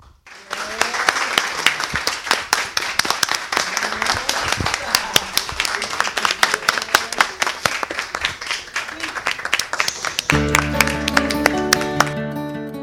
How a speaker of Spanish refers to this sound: Pero por si alguien no me cree, ¿será que ustedes pueden aplaudir bien fuerte?